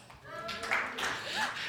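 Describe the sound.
Modest applause from a church audience answering a show-of-applause question about despising leftovers, a soft wash of scattered clapping lasting under two seconds, mixed with murmuring and a few raised voices from the crowd.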